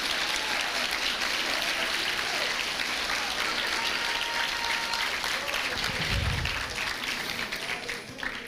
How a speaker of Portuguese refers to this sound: Se você quer aplaudir ao Senhor, faça com força para Ele, porque é dele.